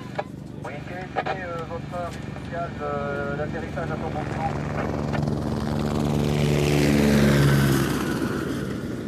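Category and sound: vehicle, helicopter rotor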